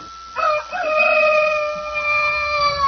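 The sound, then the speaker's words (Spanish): A fighting rooster named Alacrán crows once in a long, drawn-out call that starts abruptly and holds steady and loud, with a faint low rumble of background noise and no talking. “Me moliste los chiles para los gallos, niña. El alacrán está cantando mucho, tiene hambre.”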